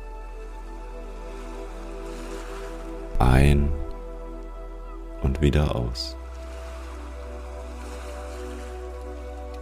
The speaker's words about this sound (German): Beobachte für den Rest der Meditation, wie die Wellen in deinem Atemrhythmus an den Strand gespült werden. Einatmen, das Wasser fließt ins Meer. Ausatmen, das Wasser wird herangeströmt.